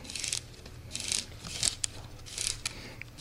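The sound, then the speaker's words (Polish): Repeated dry ratcheting scrapes come in short bursts, fairly quiet, as a small special key is turned in steps to wind the clockwork mechanism of a wooden model train built without glue or metal, with no one talking. “Ja chcę nakręcić i pokazać, jak działa ten mechanizm.”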